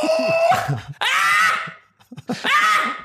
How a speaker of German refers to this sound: Wer soll sich das anhören? Du fährst mit dem Auto und dann kommt dein Gekeife da.